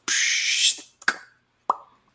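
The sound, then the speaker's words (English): A voice imitates the little spigot at the end of a chemistry set dripping: a bright, steady hiss followed by two hollow mouth plops, each with a short ringing tail, spaced about half a second apart. “And there's a little spigot at the end that goes,”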